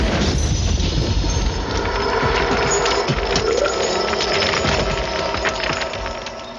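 A long, loud, raspy burp let out as a show's credits roll. It rumbles on steadily for several seconds with a gritty, crackling texture before tapering off slightly at the end. No one talks over it.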